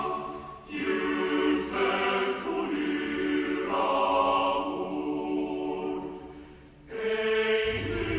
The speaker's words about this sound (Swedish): den finska nationalsången, eh, den tänkte jag att vår mycket duktiga producent Emil skulle knäppa in en liten snutt av här